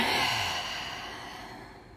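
A single long, deep exhale of breath, fairly loud, a breathy rushing that gradually fades over about two seconds, with no talking.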